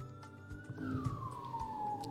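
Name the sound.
ambulance sirens passing by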